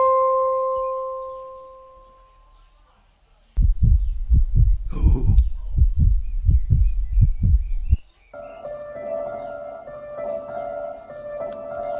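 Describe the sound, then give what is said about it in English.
A loud, thumping heartbeat sound effect from the Escape Room game pounds in a steady double-beat rhythm for several seconds, starting abruptly after a fading tone and giving way to a low sustained hum. “Your head is thumping.”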